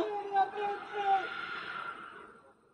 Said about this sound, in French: Voilà, après il y a les cris, les gens qui se, qui s'affolent, etc.